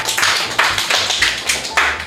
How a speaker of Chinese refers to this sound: 我们掌声鼓励。